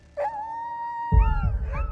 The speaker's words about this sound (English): Then, on March 12th at 11 p.m., the dogs started to howl.